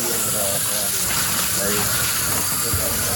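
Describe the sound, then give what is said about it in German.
Steady rushing spray of shower water for Finnis, loud, a continuous hissing wash filling the whole moment with faint voices murmuring underneath. “So, hier die Dusche für Finnis.”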